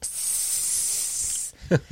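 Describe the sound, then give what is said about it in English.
A voice imitates the long, steady hiss of air being let out of an air mattress, lasting about a second and a half, then cuts off and is followed by two short bursts of laughter-like voicing. “Mike had reached up there with his arms and was letting air out of it again”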